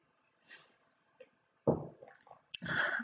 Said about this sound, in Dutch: ik neem even een slokje ondertussen van mijn thee.